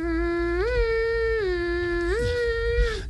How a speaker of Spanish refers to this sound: La sirena de emergencia.